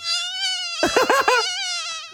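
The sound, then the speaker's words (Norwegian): A steady mosquito whine drones high and thin throughout, briefly swelling into a louder, warbling burst midway before settling back into the continuous buzz. “Hvordan høres myggen ut?”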